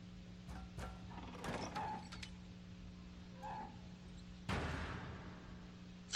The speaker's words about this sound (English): who opened that door? yeah, that was weird. Because no one's out there now.